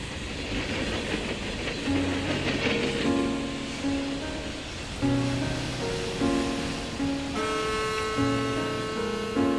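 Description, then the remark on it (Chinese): A train rumbles along steadily with a continuous rolling, rattling noise. It is the train ridden by the story characters Hogg and Passepartout. A simple melodic tune plays over it in shifting, sustained notes. Nobody speaks. “霍格和帕斯巴德坐了一段火车之后，接着搭乘快速轮船“蒙古号”前往埃及苏伊士港。”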